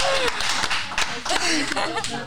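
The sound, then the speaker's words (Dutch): A crowd applauds the ladies with dense, steady clapping that stays loud throughout, while voices and a little laughter rise over the noise. “Applaus voor jullie.”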